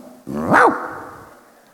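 A single loud dog bark rings out, a short harmonic yelp that rises and falls before fading into a quiet, lingering tail.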